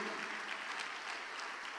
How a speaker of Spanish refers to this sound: Dele palmas al Señor porque la gloria es del Señor.